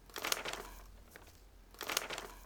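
Paper sheets held in audience members' hands rustle and crinkle in two short bursts, a crisp, dry crackling that swells, fades to near quiet, then returns. Soft, with no voices.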